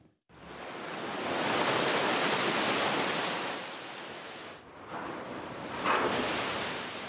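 A ship grinds through sea ice with a loud, continuous rushing and crunching roar that briefly drops off, then resumes with a sharper scrape near the end. No voices are heard.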